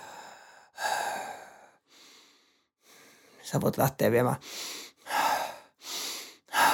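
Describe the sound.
A person speaks briefly, then demonstrates rapid breathing: several quick, forceful in-and-out breaths in a steady rhythm, loud.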